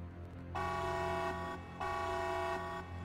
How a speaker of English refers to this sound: Gathering her bag, she heads for the emergency exit at the back of the room, pushes the bar, setting off a piercing alarm.